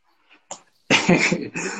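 A small pet dog whimpers as it comes over to bother its owner: a couple of faint snuffles, then a louder, sustained whiny cry lasting under a second, with no talking.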